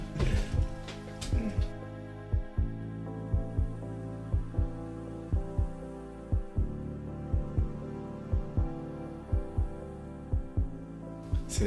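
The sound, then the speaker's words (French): A dreamy electronic interlude track from an album plays on its own: soft sustained synth chords drift over a slow, steady, heartbeat-like thump in the low end, at a moderate, even volume. “…, bah, elle est un peu différente de, l'album et elle est vachement dreamy.”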